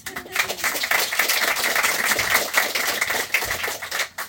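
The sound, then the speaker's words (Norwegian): An audience bursts into steady applause, a dense crackle of many hands clapping at once that holds fairly loud for several seconds before thinning slightly at the end. “Skal vi ta en applaus?”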